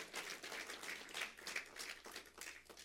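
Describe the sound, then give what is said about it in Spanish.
A crowd claps together in a steady, rhythmic beat, many hands blending into a dense, bright patter that carries on throughout without any talking over it. “Oh, alguien tiene que decir amén, aleluya, aplaudir, gritar, decir, Señor, nos vamos a levantar.”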